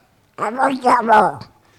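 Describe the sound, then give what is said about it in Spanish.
A loud voice does a Donald Duck impression on Onda Regional de Murcia radio: about a second of buzzy, raspy, garbled quacking speech with a few rising and falling bursts, then silence. “vamos a recuperar una de nuestras voces peculiares es el pato Donald, que lo tenemos por aquí suelto y quería hablar esta mañana.”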